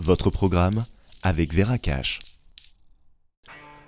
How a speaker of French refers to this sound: Écoutez, c'est le bruit d'une épargne composée d'or et d'argent métal.